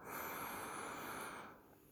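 A single long, deep breath, a steady airy rush lasting over a second before it eases off, with no talking.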